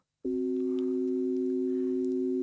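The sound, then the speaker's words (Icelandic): An augmented fourth (tritone) interval, nicknamed the devil's interval and the most dissonant of all intervals, sounds as two pure electronic tones held together, steady and loud, with a slightly dissonant, phone-like buzz; it starts abruptly and sustains unchanged with no voices. “en svo er nefnilega tómbil á milli hreinu fimmundarinnar og uh, hreinu ferundarinnar sem heitir stækkuð ferund og hún er yðurlega kölluð tónskrattin og það er óhrinnasta tómbilið af öllum hún hljóma svona”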